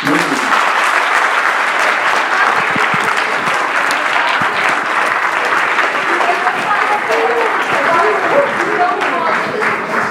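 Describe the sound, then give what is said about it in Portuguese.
An audience claps steadily and loudly for about ten seconds on request, the people who don't like the Big Brother TV show clapping, a dense, unbroken wash of many hands with a few voices faintly mixed in beneath it. “As pessoas que não curtem o Big Brother batam palmas.”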